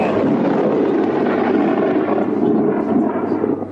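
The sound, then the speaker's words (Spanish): A loud, sustained rumble of thunder rolls on for several seconds, deep and steady with a broad roar, fading slightly at the end. “Joder, que, trueno, tío.”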